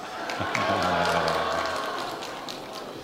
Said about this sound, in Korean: 예. 큰 박수로 환영해 주셔서 감사합니다.